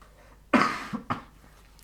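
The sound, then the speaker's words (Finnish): A strong cough bursts out, followed by two shorter, weaker coughs in quick succession, then quiet with no talking. “Tosiaan ollut mutta, influenssassa tässä, niin, niin, sen takia saatan yskiä hieman välillä.”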